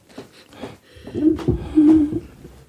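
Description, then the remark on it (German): A microphone boom arm creaks: a few soft knocks, then a drawn-out, squeaky groan that wavers in pitch for about a second, sounding almost like a cooing bird. “Äh, hat, nee, das war, das war irgendwie das, das war irgendwie das Mikro hier. Ah, dann war es der also Gurt. Also der, der, der Arm, der Mikroarm.”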